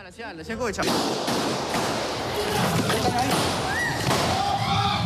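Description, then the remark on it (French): A chaotic, noisy scene with repeated sharp bangs like gunshots cutting through a dense wash of commotion, while raised voices shout underneath throughout, as armed men burst onto a television studio set in Ecuador during a live broadcast and take hostages. “ce qu'on entend euh, derrière nous, c'est la bande-son d'une incroyable séquence, l'éruption d'hommes en armes et une prise d'otage sur un plateau télévisé.”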